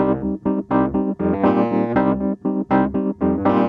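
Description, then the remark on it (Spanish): A Wurlitzer electric piano plays a run of bright, slightly gritty chords and notes in a steady rhythm, with short gaps between strikes and a buzzy, bell-like attack, loud and alone. “Esto sería un Burlitzer y esto sería un Fender Rhodes.”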